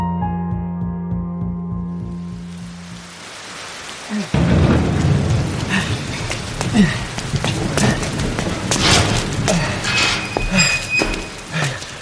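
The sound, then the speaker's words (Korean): After a few seconds of soft sustained tones, a heavy downpour bursts in loudly and keeps pouring steadily, with deep rumbles of thunder rolling beneath the hiss of the rain. “야 이쪽이야 비 맞지 말고 얼른 들어와”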